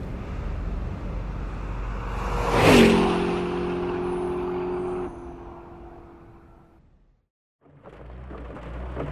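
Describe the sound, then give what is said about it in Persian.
A car engine roars as it accelerates hard at full throttle on a highway, surging to a loud peak with a steady droning hum, then fading away to silence before a rushing noise starts up again. “ماشین دیگری برایش مهیا شده بود سوار آن یکی شده و داخل اتوبان تخت گاز راند”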